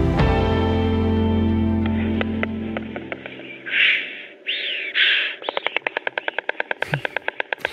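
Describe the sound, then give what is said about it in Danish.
A white stork named Annika clatters its bill as it lands at its nest in Smedager near Tinglev in Southern Jutland, a rapid, steady run of dry wooden knocks made with the bill, fairly loud, after a few soft rushing bursts and a fading musical tone. “Det er øh, lyden af storken Annika, der øh, lander i sin rede i Smedager i nærheden af Tinglev i Sønderjylland.”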